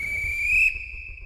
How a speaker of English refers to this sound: An hour goes by, I did the layup line, I did the drills, and I hear the coach's whistle.